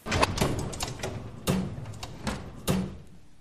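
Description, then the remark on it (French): An archive drawer holding black records in white sleeves slides open with a series of sharp rattling clunks and scraping knocks, several distinct impacts spread over a few seconds, with no talking. “Dans chaque tiroir, die Schubladen mit den schwarzen Schallplatten in den weißen Hüllen, ähneln einer Klaviertastatur.”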